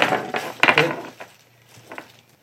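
A cat clambers over a computer keyboard at home, setting off a quick flurry of clattering key presses and thumps, then a few fainter taps as it settles.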